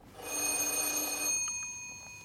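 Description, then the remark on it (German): A house doorbell, not the back-entrance bell, rings with one sustained, buzzy electric ring lasting about a second, then its bright metallic tone fades out. It is clear, with no voices. “Gerade hat es geläutet.”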